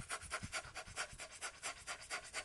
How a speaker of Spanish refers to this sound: Parece mentira porque es una respiración muy breve, así como, como acelerada, ¿verdad? Pero eso te va a calmar, hasta más que la anterior.